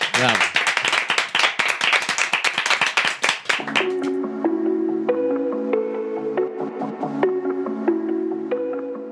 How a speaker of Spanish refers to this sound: Bueno, pues un aplauso para Lila Vilés, gracias.